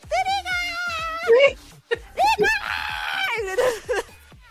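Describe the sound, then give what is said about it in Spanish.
A voice imitates frenzied, high-pitched shrieking like hysterical fans screaming at a concert, with long wavering squeals and a few breathy breaks over about four seconds. “Sí son las que le dan todo el sabor de la histeria a esta cuestión, porque literalmente gritan así,”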